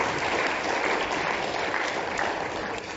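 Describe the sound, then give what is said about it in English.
An audience claps steadily for several seconds, a dense, even wash of many hands with no pauses, fading slightly at the very end; no one speaks over it. The applause thanks people who helped. “Give them a round of applause for helping me.”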